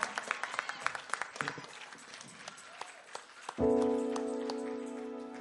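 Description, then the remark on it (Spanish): A church audience claps steadily for the Lord for several seconds, a dense patter of many hands, before a loud sustained organ-like chord swells in and holds beneath the fading applause. “Que ese aplauso sea con más fuerzas para el Señor.”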